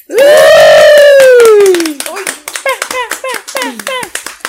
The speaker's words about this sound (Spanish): Y vamos a darle un fuerte aplauso a nuestra invitada del día de hoy